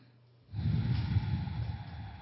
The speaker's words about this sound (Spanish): Entonces, cierras tus ojitos, mientras cierras tus ojitos, respiras profundamente, exhalas, todo eso por, la, por las fosas nasales, otra respiración profunda.